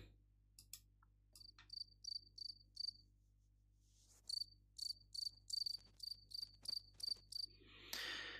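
A recording of a cricket, played from a YouTube search, chirps in quick, rhythmic bursts of high, shrill trills, pausing briefly between two runs, with no voices present and a short burst of hiss at the very end.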